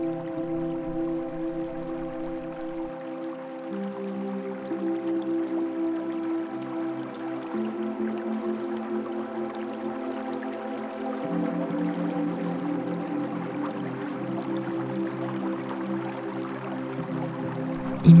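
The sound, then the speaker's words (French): A gentle stream burbles and trickles steadily throughout, blended with soft, sustained musical tones that shift slowly underneath. The water stays continuous and even, never loud. “Imaginez les rayons du soleil se reflétant sur ce ruisseau que vous entendez.”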